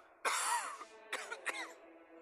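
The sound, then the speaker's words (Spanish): A raspy cough followed by two shorter, throaty coughs, uneven in rhythm, with no talking in between. “La tos no es buena señal.”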